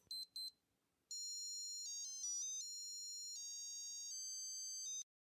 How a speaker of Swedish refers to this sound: Din Seiko pip